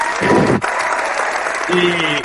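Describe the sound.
Steady applause from a crowd, a dense and even patter of many hands clapping throughout, with a voice briefly rising over it toward the end.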